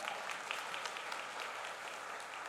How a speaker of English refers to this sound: I think about y'all better keep clapping. I'm just getting going now. Don't be done. Don't be.